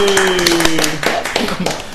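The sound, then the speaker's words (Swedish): A small group claps in applause, a quick, uneven patter of hand claps that sounds like only a few people, with a lingering steady tone fading out underneath during the first second. “Ja, det är bra att ni hjälper till att applådera så det låter som att det är fler personer.”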